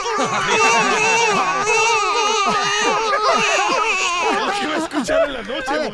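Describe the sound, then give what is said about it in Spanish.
Several babies wail at once, their loud overlapping cries rising and falling in a continuous chorus for the whole stretch. “si están los bebés de Marta llorando, ¿usted qué va a hacer?”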